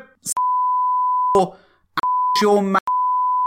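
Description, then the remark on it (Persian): A steady, high-pitched censor beep sounds in several long stretches, broken up by brief bursts of a man's voice between them, the tone loud and unwavering each time it returns. “آقا بره چی بوق مذاری؟”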